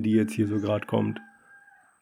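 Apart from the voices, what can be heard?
roosters crowing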